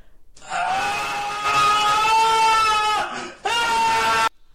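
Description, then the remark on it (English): A loud, piercing scream played through headphones, with a sustained wailing pitch in two long bursts separated by a brief break, harsh and shrill like a crying shriek. “that sounded like that was in this room. Well, I think it was right here. Someone screaming in my ear.”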